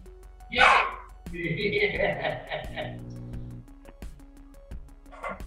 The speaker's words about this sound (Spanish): una alarma, ¿no? No, es el perro que tiene hace rato ahí chingando es la alarma, yo creo, porque te tiene como.